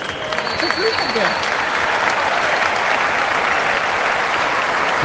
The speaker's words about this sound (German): Sie hörten den Abpfiff. Das war's. Der FC Barcelona gewinnt mit 3 zu 0 beim VfB Stuttgart und das auch verdient.